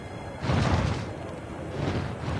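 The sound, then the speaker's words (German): A heated fir needle bursts as its oils evaporate and hot gas shoots out in a small explosion, a sudden whooshing, crackling rush that swells after a quiet start and lingers as a steady hiss, with no voices. “Die Nadel erwärmt sich, dann schießt heißes Gas in einer kleinen Explosion heraus.”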